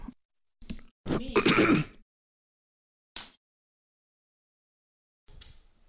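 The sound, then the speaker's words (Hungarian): A few short throat-clearing bursts and a rough cough, with a louder harsh burst in the middle and brief pauses of silence between them; no speech. “Most mindenki hallotta a kölgés.”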